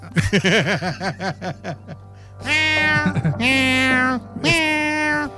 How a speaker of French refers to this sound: Moi, c'est mon chat à 2 h du matin, ça. Ah, c'est des chats, c'est nocturne. Là, ben, on a oublié d'y mettre de la bouffe, hein? Fait que là, ils s'en viennent dans la chambre, les gratte sur le lit.